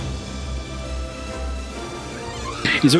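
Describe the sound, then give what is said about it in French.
A steady low mechanical hum drones throughout, then near the end a short, high, warbling cry-like squeal rises up: small cry-like noises made by alien spaceships. “les vaisseaux, ils font même des petits cris, des petits bruits.”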